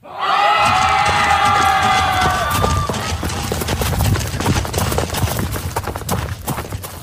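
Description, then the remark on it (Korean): A large crowd of soldiers shouts and roars together, loud and sustained for about three seconds, then continues as a churning battle din with hoofbeat-like clatter and scattered yells. “아니, 이놈들이 겁도 없이 어디서 소리를 지르고 있는 건가?”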